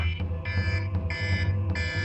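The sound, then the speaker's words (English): An electronic alarm blares in repeated pulsing bursts, a bright high tone switching on and off about three times over a steady low drone, loud with no voices. “The alarm has gone off.”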